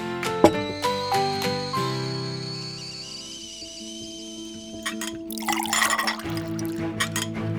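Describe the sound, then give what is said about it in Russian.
Tea pours steadily into a cup, its ringing tone rising as the cup fills, with a few clinks and splashes near the end. Clear, no voices. “Пойдемте чай пить”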